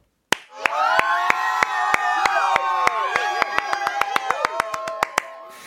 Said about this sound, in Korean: 수고했다고 박수 한 번만 쳐주세요.